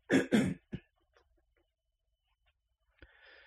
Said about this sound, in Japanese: ちょっと咳払いします。